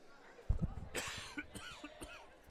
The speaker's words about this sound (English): Well, we'll see how this holds up. Uh, this cough just showed up out of nowhere. Don't expect any play by play out of me.